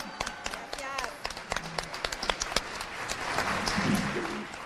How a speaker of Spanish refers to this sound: Un aplauso de pie